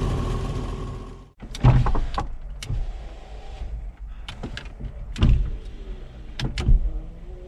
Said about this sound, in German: Fensterheber, die müde geworden sind.